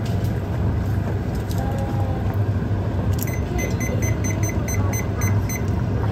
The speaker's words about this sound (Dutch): Ik ga nu een wekker pakken.